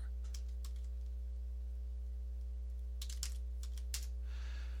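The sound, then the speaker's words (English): Bursts of computer keyboard typing, quick clusters of clicky keystrokes with short pauses between, over a steady low electrical hum, as someone types a Google search. “Come on, keyboard.”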